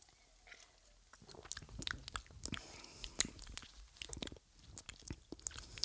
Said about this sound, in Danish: Jo, lad os tage en tår.